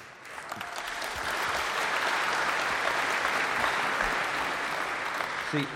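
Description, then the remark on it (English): Steady applause from a crowd, many hands clapping at once in a dense, continuous patter that swells in and holds at an even level for several seconds. “Yeah, they pick, they clap for my things too sometimes.”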